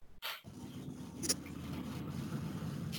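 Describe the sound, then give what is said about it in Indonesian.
A steady low rumble of a passing train, fairly faint, droning continuously with a brief brighter rattle partway through and no talking. “Ada suara kereta nih.”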